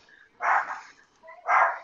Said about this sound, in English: Oh, there's my my dog barking. Yeah. Something must be exciting. Yeah, I think he sees somebody outside. Mm. He has to bark at everybody that walks by.